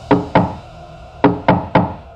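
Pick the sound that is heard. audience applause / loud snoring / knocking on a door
knocking on a door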